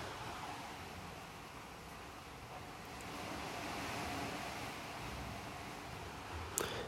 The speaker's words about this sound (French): je fais ce podcast depuis la Thaïlande. Je sais pas si vous entendez en fond le bruit de la mer, le bruit des vagues. Je vous laisse écouter un petit peu.